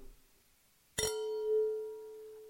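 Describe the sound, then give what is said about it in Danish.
A single bright clink of wine glasses touching in a toast at a German wine tasting, clear, followed by a pure ringing tone that lingers and slowly fades over the next second or so. “Så skål derude.”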